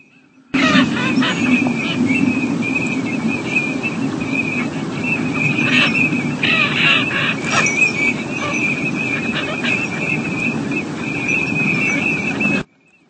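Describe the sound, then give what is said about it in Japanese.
A large flock of black waterbirds floating on a river calls from about 50 metres away, recorded with an iPhone microphone. A steady overlapping chorus of short peeping cries blends with broad background noise and continues evenly for about twelve seconds. “大量の黒い鳥がですね、ここからこの川をずっと眺めていきますとかなり下流の方までたくさん浮かんでいますね泣きながら餌でも探しているのか本当にのどかだ”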